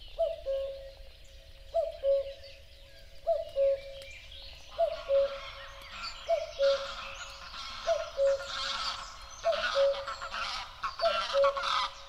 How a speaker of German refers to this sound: die Vögel waren der Star, die Amsel, die Mönchsgrasmücke, der Buchfink, die Blaumeise, Zilpzalp, Lerche, Kuckuck, Hausrotschwanz, Sperling